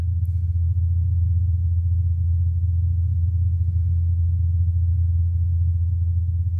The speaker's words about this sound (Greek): Ο ήχος από τις έλικες απομονώθηκε και εντάθηκε για να μπορείτε να το διακρίνετε καλύτερα. Επίση, μπορείτε να ακούσετε τον ήχο που αλλάζει καθώ το ελικόπτερο φεύγει από την περιοχή και μετά επιστρέφει. Το γνωστό φαινόμενο ντόπλερ.